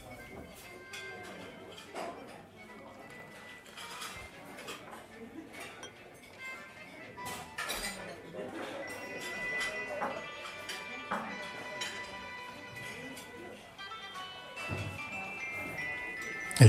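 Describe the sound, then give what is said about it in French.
A beer can is opened and poured into a beer glass, with repeated light clinks of glass and metal and a steady fizzy wash, while muffled voices murmur in the background. “la verse dans un verre péronnier, je pense qu'en tachycardie, vous allez apprécier ce geste.”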